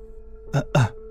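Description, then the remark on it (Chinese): Two short, fairly loud coughs in quick succession, each a throaty voiced burst, with no talking around them and a faint steady hum in the background. “回想了一番之后，不自然稍微咳嗽了几声”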